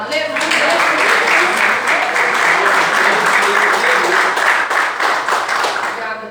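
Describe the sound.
An audience bursts into loud, sustained applause in praise of God, a dense wash of many hands clapping steadily for several seconds, with murmured voices faintly mixed beneath.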